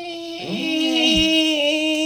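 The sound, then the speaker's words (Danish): A voice mimics a mosquito coming toward one's ear while lying in bed trying to sleep, a thin, sustained nasal buzz that wavers in pitch and swells louder, as if the insect is drawing steadily closer, with no words spoken. “Jeg lader som ingenting og så kunne du bare høre lyden af den der fucking myg bare komme tættere og tættere”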